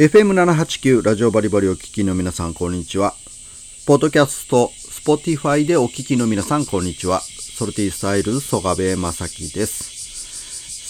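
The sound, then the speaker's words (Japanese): Cicadas drone loudly in a steady, high-pitched buzz heard in a room, continuing under a man's talkative speech and filling the pauses between his sentences. “さあ、今日も盛大に鳴いている、えー、セミの鳴き声がうるさい部屋から、えー、お伝えしていますということで、”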